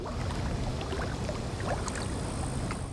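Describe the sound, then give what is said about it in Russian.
Steady water washing and lapping against a small boat on a river, with a constant low rumble and scattered light splashes throughout; no voices, just continuous river noise. “Только волны шумели, да ветер свистел над рекой.”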